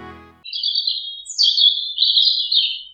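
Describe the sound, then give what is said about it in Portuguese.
A ground dove chirps plaintively while flying around, a high, thin, drawn-out piping that wavers across three connected phrases, clear with nothing else around it. “Todas as tardes, o príncipe ia espairecer no jardim e notava uma rolinha que voava sempre ao redor dele, piando triste de fazer pena.”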